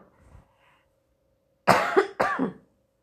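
A mother coughs twice in quick succession, two loud, harsh bursts, following a brief faint murmur and a moment of quiet.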